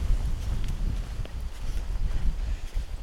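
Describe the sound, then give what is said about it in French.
Wind blows steadily outdoors, a deep, rumbling roar that buffets the microphone with gusty low thumps and a faint airy hiss above, continuous throughout with no voices. “Et là, ça souffle.”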